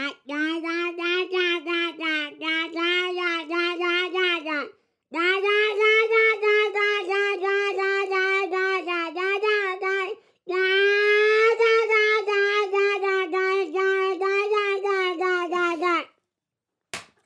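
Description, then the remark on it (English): A voice imitates a happy baby, cooing and babbling in three long, loud, high-pitched phrases with a wavering pitch, separated by short pauses and followed by a faint click. “this is a baby enjoying themselves.”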